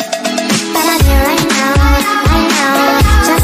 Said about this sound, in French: ça s'appelle …, c'est par … et c'est un remix de … qui a aussi cartonné sur TikTok